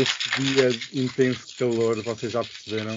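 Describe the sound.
Ice rattles steadily in a cocktail shaker beneath continuous conversation, a busy clattering that persists between a woman's spoken phrases.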